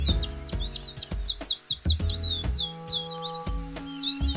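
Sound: birds chirping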